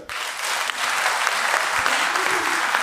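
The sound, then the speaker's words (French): An audience applauds to vote that the film Fatal is a musical comedy, a dense wash of many hands clapping at a fairly loud, even level for the whole stretch, with no voices standing out. “Par applaudissement, qui pense que c'est une comédie musicale”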